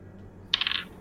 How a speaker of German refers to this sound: Okay, ich würfel erstmal meinen W12.